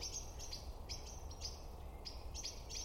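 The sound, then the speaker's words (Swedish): Repeated sharp, high bird calls ring out in quick bursts, several agitated birds chattering from trees over a steady low outdoor rumble, with no voices. “Men hör du nu, vandra, vad fåglarna blir upprörda här.”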